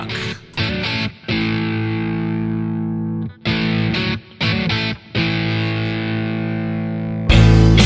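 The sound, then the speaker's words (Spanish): Loud, heavily distorted rock guitar chords open a rock band's newest track, ringing out in a series of sustained strums separated by brief stops, each chord held for a second or two before the next hit, ending in a dense burst. “Y bueno, y aquí son unos primeros acordes de esta banda que vamos a hablar en el día de hoy.”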